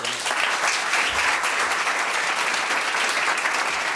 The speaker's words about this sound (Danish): Nu har jeg tænkt mig at gå op og introducere aftenens gæst. Hvis I lige klapper imens, så er det fedest.